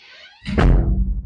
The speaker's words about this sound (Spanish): se cerró y se abrió, la puerta de mi cuarto, perdón el ruido